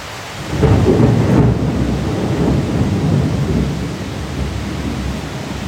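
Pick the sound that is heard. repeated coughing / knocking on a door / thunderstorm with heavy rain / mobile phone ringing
thunderstorm with heavy rain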